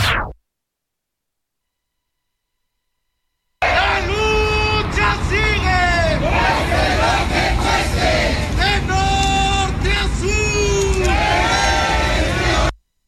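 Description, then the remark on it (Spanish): A loud crowd of protesters, members of the Alianza de Organizaciones Sociales, storming the central offices of the INE at Viaducto Tlalpan number 100, shouting and yelling over one another in a dense, continuous roar, with rising and falling voices and chant-like cries, after a few seconds of silence. “Este es el momento que está usted escuchando en que un grupo de personas integrantes de la Alianza de Organizaciones Sociales irrumpió hoy en las oficinas centrales del INE, ubicadas en Viaducto Tlalpan número 100.”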